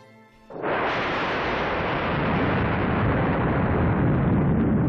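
A loud, deep thunderclap crashes in suddenly and rolls on as a sustained, heavy rumble that holds steady without fading, with no voices over it.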